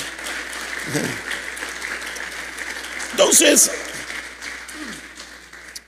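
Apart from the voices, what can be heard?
audience applause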